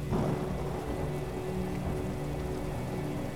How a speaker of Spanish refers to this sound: La lluvia es incómoda